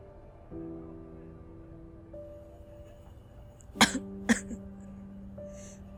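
Two small, quick coughs close together, breaking the quiet over a soft, steady humming drone in the background. Nobody speaks.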